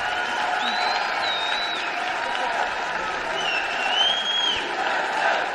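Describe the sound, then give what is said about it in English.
A large crowd applauds in a dense, steady roar of clapping that holds at an even loudness for several seconds, with a few sharp whistles rising above it. “Big applause.”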